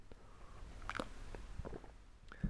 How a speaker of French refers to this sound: Et là, je vais boire une petite gorgée de café.